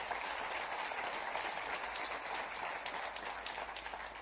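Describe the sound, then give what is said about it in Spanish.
An audience applauds the baby boomers, a dense wash of many hands clapping at an even, sustained level throughout, with no distinct voices rising above it. “Un aplauso para ellos.”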